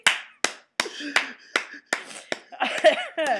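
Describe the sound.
A single person claps hands in a steady, even rhythm, about nine sharp, crisp claps, with voices starting to talk over the last few claps.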